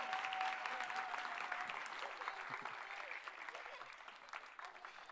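An audience at a church applauds steadily, a dense wash of many hands clapping that stays fairly loud throughout and eases slightly toward the end, with no voices standing out.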